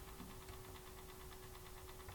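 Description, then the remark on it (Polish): A cassette player's motor whirs steadily as it rewinds the damaged end of a tape, with a constant low hum and a faint, rapid rhythmic flutter running throughout. It is fairly quiet, with no voices. “No to przewinę ten zniszczony koniec i będziemy słuchać.”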